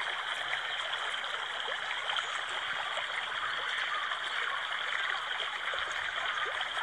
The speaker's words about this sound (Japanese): 第1弾は、川のせせらぎ音を聞け、です。え、何ですか水の流れる音ってすごい癒し効果ないですか